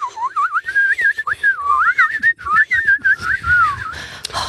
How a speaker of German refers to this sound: Kannst du auch beim Einatmen pfeifen? Ja, natürlich. Oh. Muss man ja.